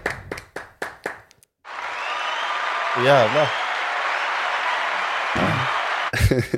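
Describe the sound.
A burst of sustained applause from many hands on a morning program, steady and fairly loud for several seconds, with a few short spoken words before it and brief voices cutting in over and after it.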